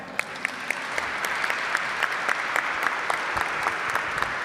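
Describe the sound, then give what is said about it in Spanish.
Sustained audience applause for a family group from Villa Gobernador Galvez fills the whole stretch, a dense wash of many hands clapping with scattered sharper claps popping out, steady, with no one speaking over it. “Vamos a darle un aplauso.”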